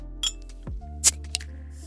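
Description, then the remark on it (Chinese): A glass bottle of Haowangshui Wangshanzha sparkling hawthorn drink is opened with no one talking: a light clink, a quick sliding pop, then a sharp hissing burst as the cap releases, followed by one small glassy tap. “那先这样，我开一瓶望山楂看电影去了，拜拜。”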